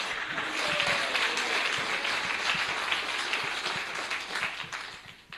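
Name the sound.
audience round of applause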